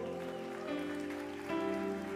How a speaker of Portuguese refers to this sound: Alguém pode dar uma glória a Deus? Vamos aplaudir o pessoal de casa, por favor.